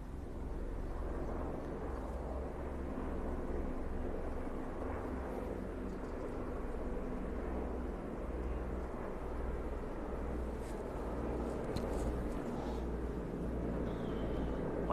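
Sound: helicopter flying overhead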